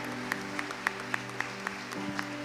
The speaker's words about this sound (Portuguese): Vamos dar um aplauso a Jesus Cristo pela vida deles, amém?